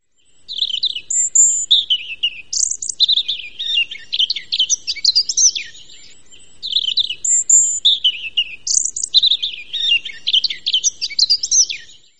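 A European robin (Erithacus rubecula) sings two long, rich phrases of high, tumbling warbles and thin whistles, separated by a short pause, heard clear with no other sounds.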